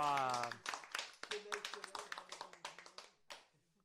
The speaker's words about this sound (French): on peut l'applaudir.